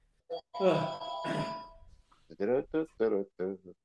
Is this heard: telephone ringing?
yes